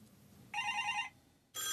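An old analog landline telephone bell rings loudly, one half-second burst, a pause, then a second ring starting. No voices.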